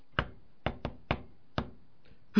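Sharp, hollow knocks tapped out in the shave-and-a-haircut rhythm: five quick raps, a pause, then a soft knock and a final louder one. No voices.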